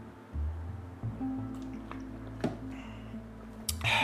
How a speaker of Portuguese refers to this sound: tô engasgado. Peraí, deixa eu beber uma água.